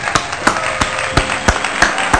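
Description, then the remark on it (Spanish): Hands clap in a steady, even rhythm, about seven sharp claps, like a single person applauding alone with no voices. “Y sí, feliz día del amigo para todos ellos, así que les voy a dar un aplauso.”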